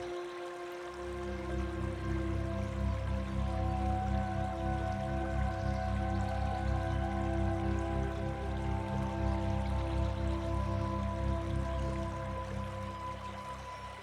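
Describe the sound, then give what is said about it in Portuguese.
Steady, continuous flowing water like a stream, starting after a brief quiet moment and running evenly, with a soft sustained tonal hum blended underneath. No voices. “Perceba a água passando e fluindo.”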